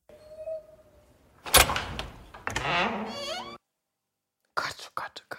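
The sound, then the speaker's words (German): A door creaks open with a drawn-out, wavering groan, preceded by a sharp burst and followed by a quick flurry of bright, sparkling magical chimes of the Lumos spell after a brief pause. “ist das für eine knarzende Tür”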